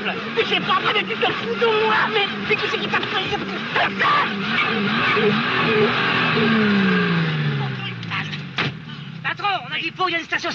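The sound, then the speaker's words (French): A car that has run out of fuel: its engine coughs and sputters with rough, irregular bursts, then its pitch sinks and winds down as it stalls, followed by a few faint clicks. The sound is fairly loud. “la panne sèche, c'est la tuile en voiture”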